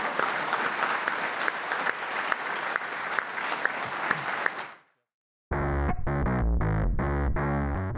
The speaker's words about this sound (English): ladies and gentlemen we're just about eight o'clock so it's uh, down to me just to encourage you all to give a warm round of applause to Jim Goodwin and thank us for here.